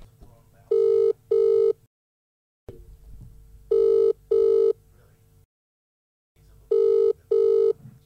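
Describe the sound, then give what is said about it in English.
An outgoing call's ringback tone: three double-pulse rings in a steady rhythm, each pair of short buzzy tones followed by a pause, fairly loud over a low background rumble. “I wondered if we should just call him and have a chat to him.”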